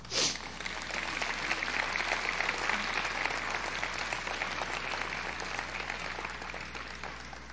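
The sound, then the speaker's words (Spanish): An audience breaks into sustained applause, dense overlapping claps forming a steady wash of sound that holds at an even level for several seconds with no talking over it. “Dale un aplauso.”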